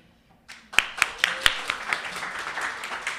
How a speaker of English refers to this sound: Round of applause. You have to clap, yeah. You got to clap. Oh my God, you guys are pros. Amazing.